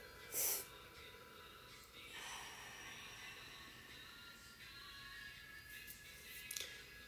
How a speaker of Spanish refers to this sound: Oh, vamos a empezar este podcast con una grande respiración por adentro.